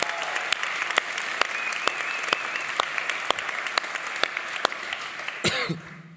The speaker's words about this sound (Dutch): Ehm, aan mensen, even een applaus geven voor iedereen hier, die hier was.